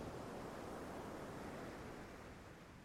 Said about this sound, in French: Alors je ne sais pas de quelle manière le corps oscille et danse sur ce son de vague.